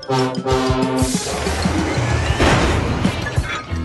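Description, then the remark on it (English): Loud metallic crashing and banging of railway trucks being roughly shunted as the engine Diesel collects Duck's trucks, several heavy clanks and bumps in quick succession over a steady clattering rumble, with a musical tone underneath at the start. “After lots of crashing and bashing, Diesel had collected Duck's trucks.”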